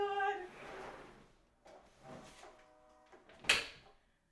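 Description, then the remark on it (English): A window is pulled shut: a squeaky, scraping slide in a few short pushes, ending in one sharp knock as it closes, with no voices. “I'm gonna have to shut the window.”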